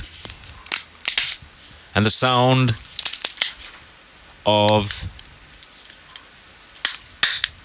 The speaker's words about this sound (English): a nutcracker. Ah is what I was after. And I've got two word perfect answers in on the WhatsApp line.